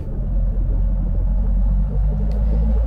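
A large white bus idles with a deep, steady engine rumble, fairly loud, its low throb continuing without pause and no voices over it.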